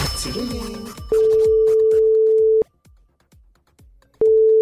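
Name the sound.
telephone ringing tone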